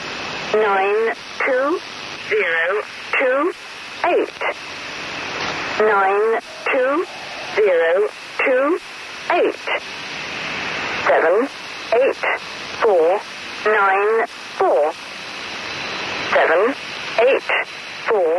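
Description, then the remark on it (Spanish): Over a constant hiss of shortwave static, a distorted voice reads out short, evenly spaced numbers in a steady rhythm: an original broadcast of the Lincoln Poacher numbers station, the most powerful numbers station known, which broadcast numbers for decades. “Estos números que escucháis corresponden a una emisión original de la estación de números más potente que se conoce.”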